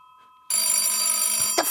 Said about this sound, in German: Nerviges Klingeln. Geben Sie auf. Ich hasse Telefone und ihr Klingeln.